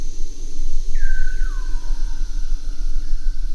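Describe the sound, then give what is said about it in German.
An underwater Weddell seal call in the Antarctic: two clear, eerie whistles slide downward in pitch and then stretch out into long, steady tones over a constant low rumble of background noise. “Die Weddelrobben, die setzen dann anschließend ein und singen dann, wenn die Rossrobben nicht zu hören sind.”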